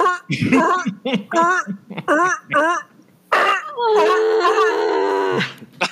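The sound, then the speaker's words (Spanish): A person mimics a velociraptor mating call with a string of rasping, warbling vocal bursts, ending in a long, strained, screeching wail, loud. “¿no han hecho sonido de Velociraptor?”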